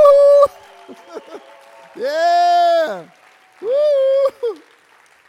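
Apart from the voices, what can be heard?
audience applause and cheering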